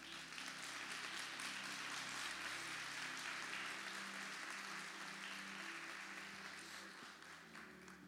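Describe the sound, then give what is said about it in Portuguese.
A church audience breaks into sustained applause for Jesus after a Bible reading from Hebrews 12, a dense wash of many hands clapping at once, steady and loud throughout before easing slightly toward the end, with no voices heard over it. “Você pode aplaudir a Jesus por essa palavra?”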